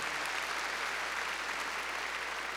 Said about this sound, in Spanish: Verdémosle palmas fuertes ahí a nuestro Señor.